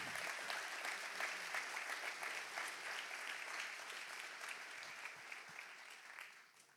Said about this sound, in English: Thank you. Can we give them a big clap? Aren't they amazing?